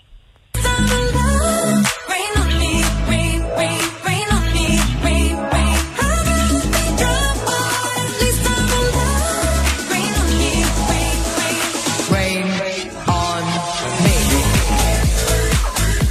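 A loud, dense pop song with a steady dance beat and a woman singing over bright synths, playing continuously from just after the start with no talking.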